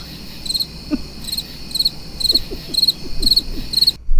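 Crickets chirp in steady, regularly spaced pulses, bright and fairly close, over a quiet night-like background with a few low croaking sounds; no one speaks.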